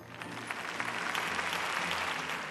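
Steady applause from a crowd, a dense crackle of many hands clapping at an even, sustained level with no pauses, briefly underlaid by faint low tones; an ovation for the beauty salon Four Hands on winning The Voice award as best beauty spot.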